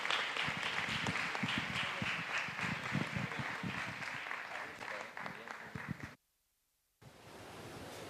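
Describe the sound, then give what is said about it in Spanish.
Sustained audience applause for the people who came to serve and for all the leaders who accompany young people, a dense wash of many hands clapping at steady loudness for about six seconds, then a sudden silent gap before the clapping resumes briefly. “Así que fuerte, un fuerte aplauso para ellos y para todos los responsables que acompañan a jóvenes.”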